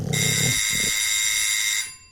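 A doorbell at a house's front door rings with one long, steady electric buzz lasting nearly two seconds, loud, then cuts off abruptly. A brief low rumble comes just before it; no one speaks.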